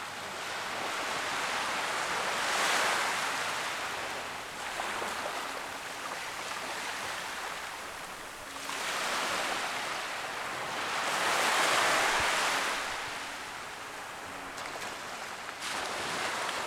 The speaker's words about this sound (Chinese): 本期大家听到的声音，是我们在海边录制的白噪音。如果你的条件允许，可以与我一起闭上眼睛，躺着，或者坐在沙发上，安静聆听潮汐的声音。